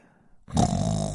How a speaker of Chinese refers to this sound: 就在不远处的树上，大蛇瞌睡伯正在打着呼噜。